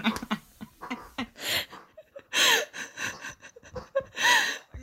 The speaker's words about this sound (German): Jetzt hört ihr im, Hintergrund so ein Schwein grunzen, weil mein Hund anfängt mit so einem Schwein zu spielen.